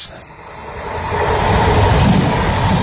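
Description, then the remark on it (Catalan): A commuter train on the R3 Rodalies line linking Ripoll and Barcelona rumbles along its rails with a steady, building low roar and faint rattling, continuous, with no voices. “Cada dia els usuaris de la línia R3 de Rodalies que veuen sortir el sol des d'un vagó ens expliquen les gràcies i les penes del primer comboi que uneix Ripoll i Barcelona.”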